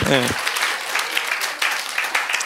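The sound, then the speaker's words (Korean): Steady applause from a crowd, a dense rush of overlapping claps that carries on evenly throughout, opened by a brief voiced sound at the very start. “박수도 쳐주시고 고맙습니다.”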